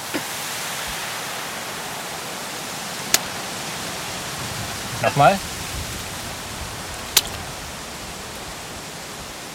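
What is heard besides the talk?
wind and water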